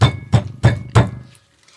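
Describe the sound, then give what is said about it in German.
Four evenly spaced taps on a firm tofu block to check its consistency, each a dull, low thud with a short bright click. The taps keep a steady rhythm before the sound stops, with no voices. “Da hat jetzt nicht irgendwie der Griffelo geklopft, sondern ich habe einfach nur mal geguckt, irgendwie, wie die Konsistenz von ja. diesem Tofu ist.”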